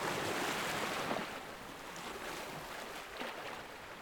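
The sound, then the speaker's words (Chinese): Ocean waves wash in with a steady, full-bodied roar, swelling slightly now and then, with a soft hiss of surf throughout and no voices. “你仍然闭着眼睛，听着一阵一阵的海浪声。”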